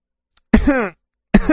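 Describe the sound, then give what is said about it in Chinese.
Two loud, raspy coughs with a strong voiced, throaty tone, separated by a short pause; the second is cut off at the end. No other sounds accompany them. “他又咳嗽了两声”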